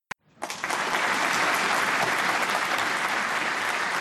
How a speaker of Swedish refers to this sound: Och tycker att eh, de här eh, advokaterna ska få ett särskilt tack för att de har jobbat gratis. Eh, kan de få en applåd för tycker jag.